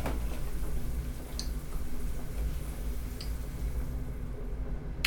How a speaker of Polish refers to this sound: Przez to bardziej słychać, jak się gotuje.